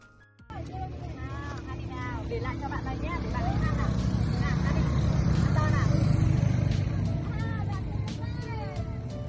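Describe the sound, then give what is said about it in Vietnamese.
Early in the morning at a small house, continuous engine rumble of vehicles coming and going with a steady low drone swelling in the middle, while people chatter, laugh and call out in the background and occasional clicks and knocks punctuate the scene, as a charity trip is prepared. “ngôi nhà nhỏ của chị … đã rộn rã tiếng cười, tiếng xe cộ ra vào”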